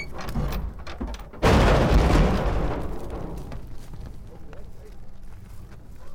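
Nineteen wild Yellowstone bison, captured at Stephens Creek, burst out of side-by-side trailers into the prairie with a sudden loud, booming rumble of hooves and rattling metal that swells, then slowly fades into a lower, continuing rumble.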